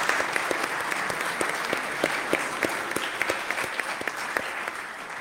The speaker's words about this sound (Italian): chiederei anche un applauso per Rinaldo Comba, il maestro di Beatrice.